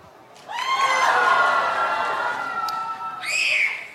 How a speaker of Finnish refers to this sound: tehdään sellainen pieni huutoäänestys, että mitä näistä Joonas saa nyt maistaa